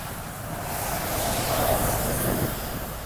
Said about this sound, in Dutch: dat was dus een bus.